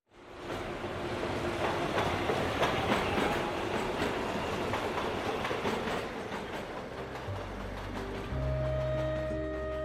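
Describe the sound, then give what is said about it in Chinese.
A subway train roars by steadily for ten seconds, a dense rumbling rush with rhythmic rail clatter, and near the end a low humming tone rises as the cars pass. “地铁从身边飞驰而去，显得很是无情。”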